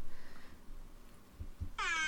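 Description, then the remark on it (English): An air horn sound effect, set off by hitting the air horn, blares at the end: a loud, bright, sustained honk with a stack of harsh overtones, following a faint tone and a few low thumps. “Hitting my air horn.”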